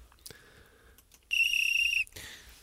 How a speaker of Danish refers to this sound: Vi fløjter af for Hobro her i den her omgang